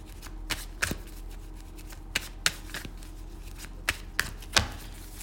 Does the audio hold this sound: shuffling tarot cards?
yes